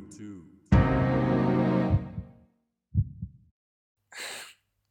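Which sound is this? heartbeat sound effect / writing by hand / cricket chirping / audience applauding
heartbeat sound effect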